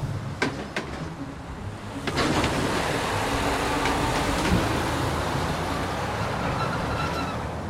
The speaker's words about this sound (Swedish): Lastbil efter lastbil passerar tullstationen.